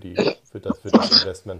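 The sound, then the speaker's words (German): A single short, sharp sneeze bursts out in the middle of a man's ongoing speech, which continues around it. “Gesundheit.”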